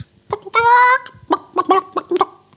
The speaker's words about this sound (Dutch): Een, een, een techno-nummer met kippengeluiden.